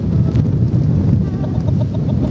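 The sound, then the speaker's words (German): Chickens cluck and murmur over a steady, dense rumble of background noise, with soft repeated calls running throughout rather than any single clear cry. “Wir haben auch Hühner.”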